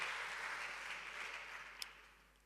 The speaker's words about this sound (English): So they've got the revelation. They are clapping. No problem.